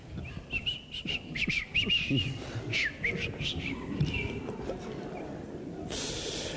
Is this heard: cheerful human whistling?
yes